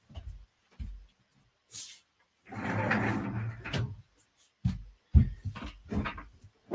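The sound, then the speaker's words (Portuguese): A door is pushed shut to stop an echo: a few scattered knocks and bumps, a longer scraping swing, then a sequence of solid clunks as it closes. Nobody talks. “Deixa eu só fechar a porta que está dando eco.”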